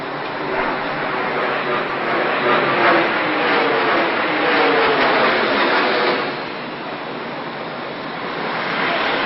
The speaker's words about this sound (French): Il est environ 8h45 ce 11 septembre 2001 et tous les New-Yorkais se pressent dans les rues de Manhattan afin de se rendre au travail. Mais à ce moment-là, un bruit assourdissant d'un moteur d'avion déchire le ciel.